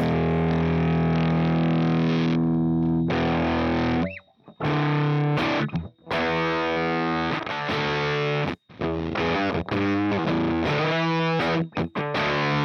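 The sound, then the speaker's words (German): A heavily distorted electric guitar plays sustained, buzzing chords through an effects pedal, loud, with a few brief gaps between phrases and no voices. “Also er klingt auf jeden Fall ziemlich kaputt, das ist ja gut, das soll er ja auch.”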